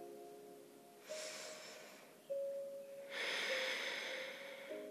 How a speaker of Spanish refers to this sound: Otra respiración profunda.